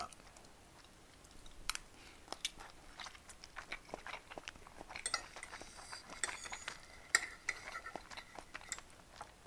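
Chewing and biting mixed with light clinks and scrapes of cutlery against dishes as someone eats a lunch they cooked, irregular and busy throughout, with faint talk in the background.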